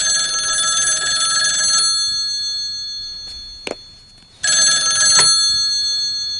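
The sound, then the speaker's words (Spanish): A telephone rings in two bright, buzzy bursts, the first lasting nearly two seconds, then a quiet pause with a faint click before the second ring, as a call is placed from a public telephone in a hallway. No one speaks. “En un pasillo, Tim marca en un teléfono público y pone el auricular a John.”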